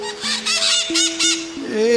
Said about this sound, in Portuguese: é a maritaca. Eu fico muito curiosa quando as vejo juntas nas árvores, elas ficam tão eufóricas que parece que elas estão falando algo muito especial entre elas.